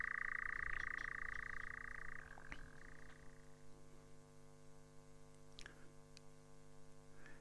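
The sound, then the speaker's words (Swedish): A European nightjar's steady, mechanical churring trill runs continuously for a couple of seconds on a light summer night and then cuts off, leaving a low electrical hum and faint background noise. No one speaks. “Nattskärran är, är en mytisk fågel givetvis då för att den var ett mytiskt ljud, fanns i tallmoar.”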